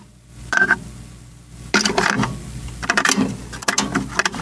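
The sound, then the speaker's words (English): An audio cassette holding a recorded interview with Mr. Starlin about Thanos is pushed into a player: a short plastic clack, then a longer run of rattling, clicking mechanical clunks as the deck engages, fairly loud with no talking. “I got it on an audio cassette. Let me pop that in.”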